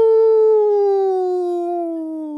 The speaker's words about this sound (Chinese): 那声音完完全全、彻彻底底的，那就是狼吼的声音。嗷！